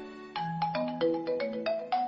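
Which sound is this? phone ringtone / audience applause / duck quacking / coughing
phone ringtone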